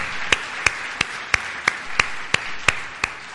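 An audience claps for the Lord together in a steady, even rhythm, about ten sharp, bright claps roughly three per second, with no voices over them.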